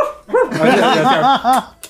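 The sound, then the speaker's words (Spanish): A voice imitates a dog yelping, as in a TikTok video: about five quick, high, whiny yelps in a rapid run, fairly loud, with no other talk. “Como el, no sé si se visto el TikTok del albio del perro. Así.”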